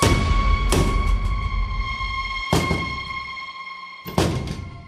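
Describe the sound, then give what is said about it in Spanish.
A sturdy wooden wardrobe door bangs shut three times at uneven intervals, each a sharp, heavy thud with a short ringing decay, loud over a steady background hum. “Pam, pam, pam, pegando. Recuerdo que era un armario Vaivenes, Lo grabamos en su día, un armario vaivenes, recio.”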